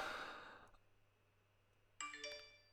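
A breathy exhale fades into near silence, then a phone switching on sounds its bright electronic startup chime: a short melodic run of ringing tones, clear, ending abruptly.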